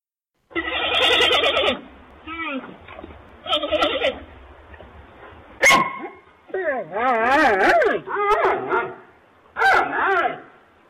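A fox calls loudly in a string of about seven bursts: harsh yelping barks and wavering, whining screams separated by short pauses, with no voices talking.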